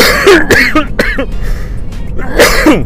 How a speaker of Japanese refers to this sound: ごめんなさいあ何でしょう急に咳が出ましたね